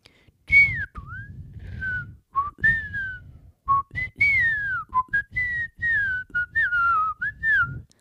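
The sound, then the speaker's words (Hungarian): A person whistles in imitation of a wind-borne sound, a string of short, gliding notes, some rising and others falling in quick, chirpy phrases separated by brief pauses, with no talking. “Ö, és én fügyszerűre képzelem el.”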